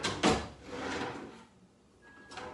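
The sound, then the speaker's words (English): A drawer slides open with a sharp wooden clack, followed by about a second of scraping, shuffling rummaging, then a quieter knock at the end. No one speaks. “It was in that drawer to your left where you were.”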